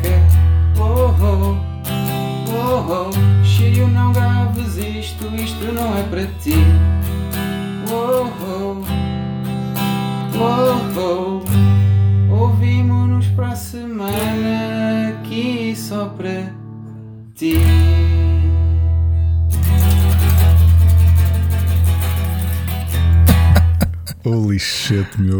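A recorded song plays loudly and continuously, a sung melody riding over a heavy, steady bassline, with a short drop in energy partway through before the full mix returns.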